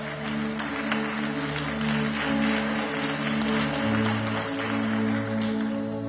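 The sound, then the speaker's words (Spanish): A church audience breaks into sustained, steady applause for the words that God will heal their land, a dense wash of many hands clapping together, with low organ-like tones humming beneath and no speech over it. “Y ahí aplaudimos todos, Dios sanará nuestra tierra.”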